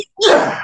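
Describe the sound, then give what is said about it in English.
A single loud sneeze bursts out after a brief silence, a sharp explosive blast that trails off into a breathy exhale, with no talking. “Bless you. Excuse, me.”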